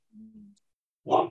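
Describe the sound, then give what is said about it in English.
A low, drawn-out hoot-like sound fades, then a pet dog gives a single short bark, fairly quiet, with no one talking. “oh that's my dog barking sorry”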